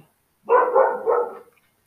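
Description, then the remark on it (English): A dog barks three times in quick succession, fairly loud, with a short burst of energy around half a second in and quiet before and after. “sorry about the barking dog”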